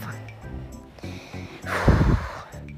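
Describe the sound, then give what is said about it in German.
Heavy, breathless panting of a person who has just run up the stairs to a room one floor up, a run of voiced huffs and gasps with one loud, gusty exhale near the middle, no words spoken. “Entschuldigung, dass ich so außer Atmen, Atem bin. Mein Zimmer liegt einen Stock weit oben und da musste ich gerade die Treppen hochrennen.”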